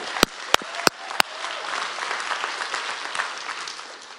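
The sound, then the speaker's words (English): Four slow, evenly spaced sharp claps ring out, then a church audience breaks into a steady wash of applause at a moderate level to the end, clapping for the news that 173 people took their next step with Jesus Christ. “Oh, y'all clap.”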